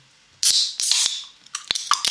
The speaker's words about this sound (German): So, ich öffne mal kurz mein Bier. Ich ja, warte, ich mache das auch gerade mal. Ähm, hier kurz ASMR. Erstmal klopfen, damit es nicht schäumt. Außen, nicht oben, ganz wichtig.